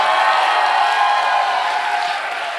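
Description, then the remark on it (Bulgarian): An audience gives about ten seconds of applause, clapping together in a dense, steady wash that holds loud throughout and eases off slightly toward the end, with no clear voices on top. “Дай му 10 секунди пляска, ако вярваш.”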